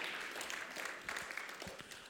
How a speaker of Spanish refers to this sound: Del un aplauso fuerte Señor.